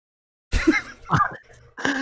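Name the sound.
imitated cough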